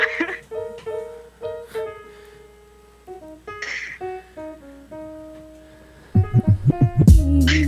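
A hip-hop beat for rapping over plays on its own: a bright, plucky melodic loop, then deep booming bass kicks thump in a steady rhythm near the end, loud.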